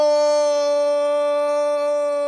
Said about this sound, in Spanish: ¡Wow! Ese es el grito de gol más largo que he escuchado.